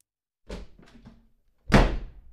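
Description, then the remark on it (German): Anton Bruckner angrily slams his hat down onto a table: a softer knock with a brief clatter, then a loud, heavy thump. No voices. “Wütend knallt Anton Bruckner seinen Hut auf den Tisch.”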